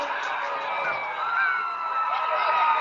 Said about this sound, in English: The Elm Creek crowd trying to make some noise as you can hear below us.